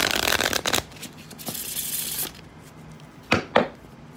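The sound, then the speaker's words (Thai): Playing cards being shuffled: a dense riffling burst for most of a second, a few lighter flutters, then two sharp snaps of cards being squared. No voices. “That's right, someone is shuffling cards.”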